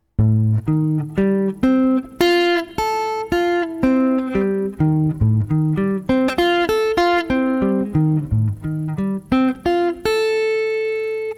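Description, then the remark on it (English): A guitar picks a steady run of clear, ringing single notes, then settles into a sustained F chord with the third voiced on top, letting it ring out at the end. No one speaks. “And here's what the F sounds like with the three on top.”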